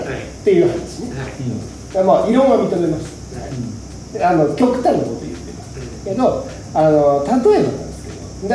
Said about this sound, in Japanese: 今後ろで多分録音にセミの声が、うん、えってずーっと入ってる確かに、入ってるんですでセミの声が、でかいのは、絶対女子のせいです